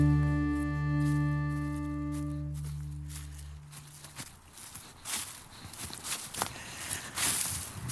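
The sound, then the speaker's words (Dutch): A sustained musical tone fades out, then crunchy footsteps shuffle steadily through dry fallen leaves in a forest, each step crackling and rustling with no one speaking. “Ik loop hier door eh, nou ja, de bladeren.”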